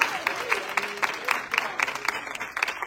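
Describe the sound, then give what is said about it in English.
A church audience bursts into steady applause as a hand clap of praise to the Lord, many hands clapping in a dense, continuous patter with brighter individual claps popping out; faint voices murmur and call out underneath. “One more time, give the Lord a hand clap of praise in this house today.”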